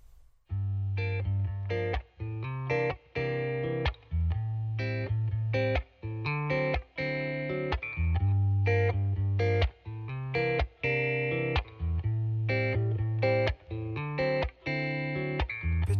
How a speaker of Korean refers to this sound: 다음 곡 들려드릴게요. 요즘 정말 핫한 밴드죠.